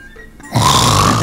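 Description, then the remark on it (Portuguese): A voice imitates the snoring of a person with sleep apnea: a brief quiet lull, then a sudden loud, harsh, rasping snort that holds steady for under a second. “É, o meu pai é assim, meu pai ele tem apneia, né? Então às vezes ele tá.”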